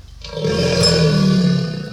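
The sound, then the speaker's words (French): A crocodile's cry: one deep, rumbling bellow that swells in and holds loud and steady for about two seconds, with no voices. “Cet animal est vert avec une grande gueule.”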